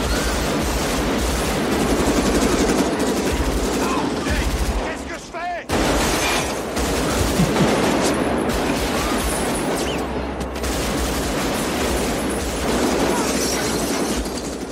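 Loud, sustained M16 rifle fire crackles in rapid automatic bursts, a dense barrage of sharp cracks that pauses only briefly before resuming with the same relentless intensity, from the famous heist scene of a 1995 film with Robert De Niro, Al Pacino and Val Kilmer.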